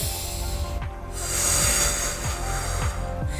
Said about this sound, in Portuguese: Então, quando eu respiro pelo nariz e solto pela boca, então eu consigo me centrar melhor. E eu aprendi uma coisa que sempre as pessoas falam assim, ó, imagine que você tá cheirando uma florzinha e assoprando uma vela.